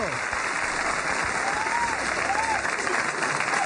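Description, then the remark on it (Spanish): Steady, dense applause from an audience fills the whole stretch, loud and continuous like a canned crowd clapping sound effect, with no pauses. “eso, ahí le tocaba, repetir, gracias por esos aplausos tan maravillosos.”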